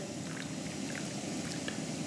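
A steady stream of cold water pours continuously into the cooler of a rosemary distillation setup, keeping the cooling water from getting too hot; an even splashing rush with no pauses and no talking.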